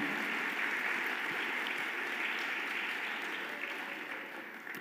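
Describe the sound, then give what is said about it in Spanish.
A crowd gives an ovation to King Jesus, a dense wash of many hands clapping at a constant level with no voices standing out, easing slightly toward the end. “Dale ovación al Rey Jesús.”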